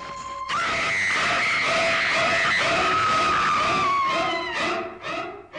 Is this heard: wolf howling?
no